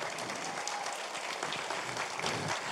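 A crowd at a Christian sermon claps steadily and loudly for a few seconds, a dense, sustained wash of applause with no pauses or voices rising above it.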